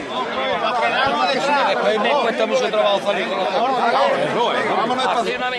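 A dense crowd of pilgrims murmurs and chatters continuously just in front of the oxen pulling a brotherhood's cart up an esplanade during a procession, many overlapping voices forming a steady babble with no single speaker standing out, loud and unbroken throughout.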